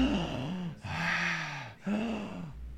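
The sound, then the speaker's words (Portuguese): A voice imitates heavy, breathy ASMR-style breathing, three long drawn-out breaths in a slow, steady rhythm, airy and slightly voiced, with no words spoken. “Elas ficam respirando, sabe?”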